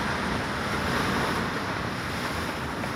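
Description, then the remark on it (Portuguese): Strong wind roars across Timmendorf beach on the Baltic Sea, Germany, on a cold day with strengthening sun, while surf washes in steadily, a dense, continuous rush of noise with gusty buffeting against the microphone and no voices. “Praia de Timmendorf, no Mar Báltico, Alemanha. O sol começa a ser mais intenso. O frio continua forte. Venta muito.”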